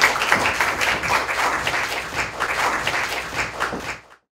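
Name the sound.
applause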